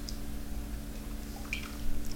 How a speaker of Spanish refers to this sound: Tengo el café ya servido sin una gota de azúcar y me voy a dar este primer sorbito no solamente del día, sino de toda la semana informativa.